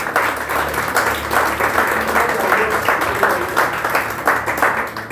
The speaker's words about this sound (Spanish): Denle un aplauso al Señor, por favor.